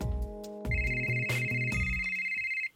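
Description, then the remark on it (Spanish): A phone ringtone for an incoming call plays a bright, steady melodic tone over a layered harmonic chime pattern, loud, lasting a few seconds before cutting off abruptly. No one speaks. “Perdón, dejen contesto rápido esta llamada.”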